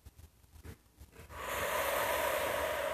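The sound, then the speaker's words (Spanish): A deep diaphragmatic breath drawn in through the nose over two counts, filling the abdomen, beginning after a brief quiet moment and swelling into a steady, airy rush that lasts to the end, with no talking. “Que vamos, en la medida que vamos a inspirar, en dos tiempos, vamos a inspirar, vamos a inhalar aire, vamos a hacer que la guatita, el abdomen, se infle como un globito, en dos tiempos.”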